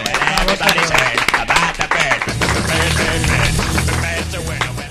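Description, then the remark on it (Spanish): A burst of loud applause from a group: sharp individual claps at first, then a dense, steady clatter of hands with voices or music beneath. “Un aplauso y cambiamos de tercio.”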